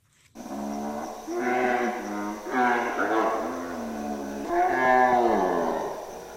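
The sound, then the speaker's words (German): A lion roars at night in three long, drawn-out, moaning calls that rise and fall, loud, with a low steady hum underneath and no other sounds. “Ein Löwe in der Nacht.”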